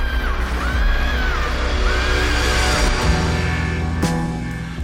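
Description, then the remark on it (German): A wailing scream like a newborn baby's cry rises and falls twice in long, drawn-out arcs over a dense low rumble, followed by a sharp bang near the end. “Das fängt an mit Herzschlag, dann ein Schrei wie ein Baby bei der Geburt.”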